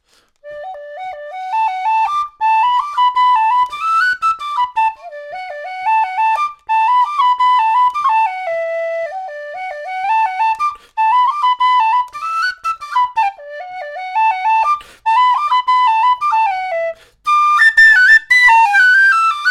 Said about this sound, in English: A whistle played a brand new tune The Scotsman Over the Border.